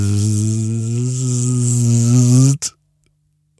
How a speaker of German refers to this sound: Dann setzt sich nämlich eine Fliege direkt in das Gesicht oder auf die Haut von Ronja